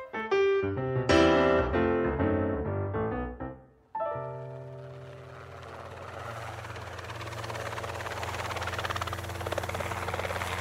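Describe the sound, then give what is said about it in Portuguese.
A brief musical sting fades out, then a steady, loud helicopter drone takes over, its rotor and engine rumbling continuously as the helicopter closely follows a police operation, with no voices. “Um helicóptero acompanha de perto uma ação policial”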